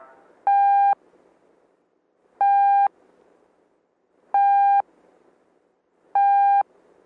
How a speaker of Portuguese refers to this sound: Letra T, um som longo.